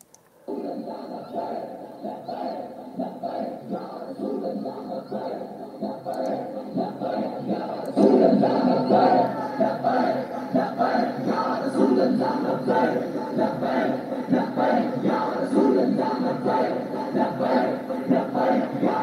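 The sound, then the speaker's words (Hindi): A large Tehreek-e-Labbaik Pakistan protest crowd in Pakistan, demanding the release of Saad Hussain Rizvi, chants and shouts continuously, a dense roar of many voices that swells louder around the midpoint and stays strong, with rhythmic surges of collective yelling. “देखिए इस भीड़ को देख लीजिए ज़रा आपको अंदाज़ लग जाएगा”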